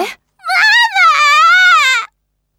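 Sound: child crying and wailing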